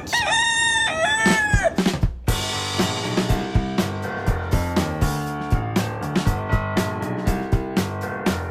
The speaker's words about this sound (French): Générique.